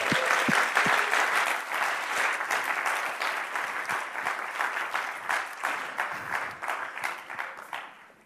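A crowd applauds the Kinderexpress team steadily for about eight seconds, a dense wash of many hands clapping at once that holds loud and then slowly tapers off at the end, with no voices.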